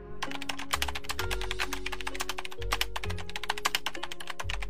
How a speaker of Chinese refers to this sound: 手指在键盘上飞舞